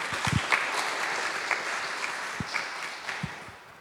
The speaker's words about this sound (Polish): Dla nich też wielkie brawa.